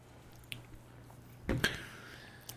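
Two people take a short, wet slurping sip of coffee at the same time, a brief cluster of moist sucking sounds midway, with a couple of faint clicks before and after against a quiet low hum. No one speaks.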